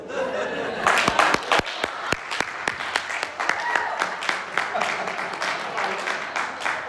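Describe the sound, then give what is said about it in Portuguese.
A crowd gives a standing ovation, clapping enthusiastically, dense overlapping hand claps with some sharp individual claps standing out, mixed with scattered laughter throughout. “aplausos de pé, aplausos de pé.”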